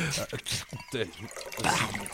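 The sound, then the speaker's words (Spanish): Nanche liquor pours into a glass in a short, splashing stream, with people talking over it. “¿no me podrías em, regalar otro poquito de licor?”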